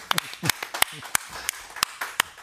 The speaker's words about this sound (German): Aber zuallererst freue ich mich über mein Publikum, was hier so zahlreich erschienen ist. Applaus für euch. Schön, dass ihr da seid.